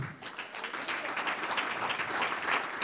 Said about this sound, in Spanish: Un aplauso al Señor.